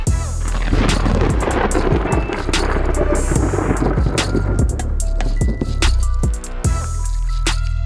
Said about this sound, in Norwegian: Og det er dette som er lyden av torden.